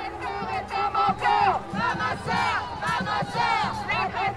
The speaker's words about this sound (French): J'ai pris goût à ces sons de femmes qui marchent. J'ai voulu continuer à marcher.